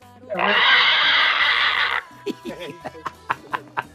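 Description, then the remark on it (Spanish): A loud, shrill squeal of a Mexican hairless pig rings out for almost two seconds, harsh, then cuts off as someone starts talking in short bursts. “El cerdo pelón mexicano.”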